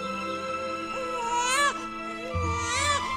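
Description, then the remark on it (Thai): A newborn baby, in the first moments after birth, cries in two long, rising wails with strained, high-pitched cries, the second starting after a short breath, with no one speaking. “หลังจากผ่านความเจ็บปวดมาอย่างทรมาน แต่เมื่อได้ยินเสียงลูกร้องในวินาทีแรกที่คลอดออกมานั้น ผู้เป็นแม่ก็แทบจะลืมความเจ็บปวดนั้นเสียหมดสิ้น”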